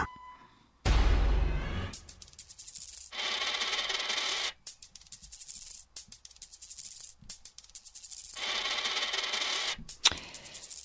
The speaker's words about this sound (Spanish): Estamos escuchando sonidos pues, como de joyas, ¿no? Que alguien tiene un anillito, etcétera.